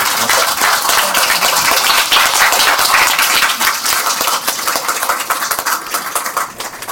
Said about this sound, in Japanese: 最後にあの拍手で終わりたいと思います